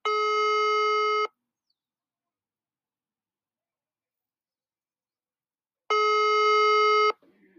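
A telephone ringback tone from a call to a journalist in Panama sounds twice, each steady buzzing ring lasting about a second, separated by a long silent pause. It is loud and clear, with no one talking.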